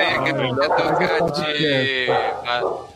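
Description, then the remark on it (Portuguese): A dog barks and yips several times in quick succession, fairly loud, while people talk over it. “Até o cachorro latiu aí.”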